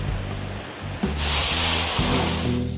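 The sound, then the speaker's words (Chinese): Sea waves surge in at Ningbo, China, as a broad, hissing wash that swells suddenly about a second in and stays loud, over a steady low rumbling hum underneath. “千百年来，宁波人梦想与荣耀的传奇，随着海浪扑腾而来。”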